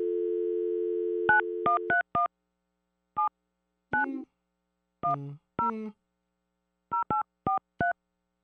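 A steady dial tone hums briefly, then a series of sharp touch-tone beeps sounds in quick irregular bursts as a number is keyed in, with a few short electronic tones mixed between.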